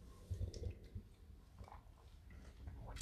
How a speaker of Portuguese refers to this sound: Tá tomando uma água aqui pra galera que tava tá me escutando e não viu eu tomando água.